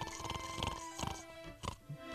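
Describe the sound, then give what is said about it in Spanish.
A voice imitates the loud, rough snoring of a sleeping man, a few grunting, pig-like snorts repeated in quick succession, with a bright background hum running underneath. “Espérate a que se duerma el chúntaro para que oigas cómo ronca, güey.”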